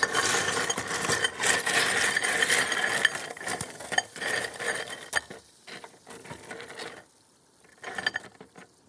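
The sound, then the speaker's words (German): A dense, continuous grinding and clinking of salted ice being stirred around a drink can to chill it faster, with rattling, crunchy scrapes for several seconds before thinning out into sparse clinks and a brief final burst. “Ein bisschen umrühren. und rein damit.”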